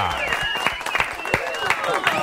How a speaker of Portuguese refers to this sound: Uma salva de palmas.